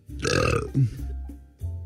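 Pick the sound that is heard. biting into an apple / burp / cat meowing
burp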